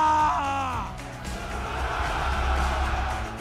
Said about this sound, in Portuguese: Grita aí pra mim. Ai! Ai! Era assim que eu ia gritar.